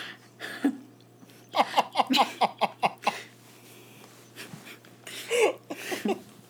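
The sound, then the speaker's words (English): A person mimics a dog panting, a quick run of about eight rhythmic, breathy huffs, with a few scattered vocal sounds before and after. “That's my dog. That's my dog,”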